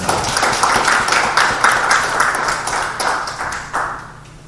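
A crowd claps steadily for several seconds to welcome the CEO of Mathpresso, maker of the AI problem-solving app Qanda, a dense patter of many hands at moderate volume, continuous without cheering or voices.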